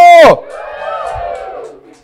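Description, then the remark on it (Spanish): An audience at a church service lets out a shout of joy: one loud, high cry opens it, then many voices blend into a sustained, wavering cheer that fades out after about two seconds. “¿Cuántos dan un grito de júbilo?”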